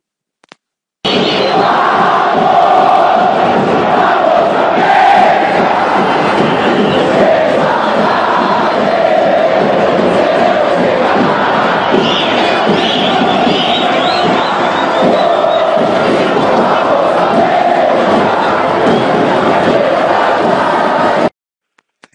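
A large crowd of Club América football fans chants the team chant "Vamos América" in unison, loud and continuous, their massed voices rising and falling in a steady rhythm for about twenty seconds.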